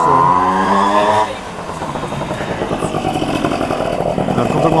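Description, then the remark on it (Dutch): A moped engine buzzes loudly, a high whining tone that drops into a rougher, rattling two-stroke drone as it rolls past and keeps running. “einde van de brommers.”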